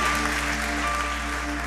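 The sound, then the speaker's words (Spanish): A church audience, asked to stand and applaud the Lord, breaks into sustained applause, a dense, steady wash of clapping with no pauses, loud throughout, alongside a faint low hum and a few steady tones. “Quiero que les un aplauso al Señor, ponte sobre tus pies.”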